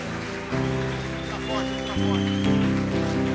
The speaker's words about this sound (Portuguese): Se você crê e tem fé, dê sua melhor salva de palmas a Ele.